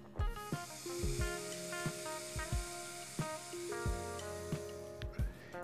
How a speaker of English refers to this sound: let's let's take a moment to uh, to reflect right now while i hit my my vape pen tell me if you can hear it